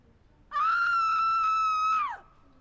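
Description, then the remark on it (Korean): One person lets out a loud, sustained high-pitched scream lasting about a second and a half, steady in pitch and fading off at the end, with no talking around it. “한 사람의 비명으로 충분했다.”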